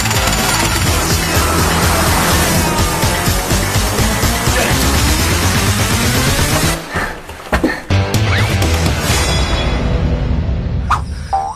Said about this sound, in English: you hear a lot of metal clanging and yeah. digging and whatnot.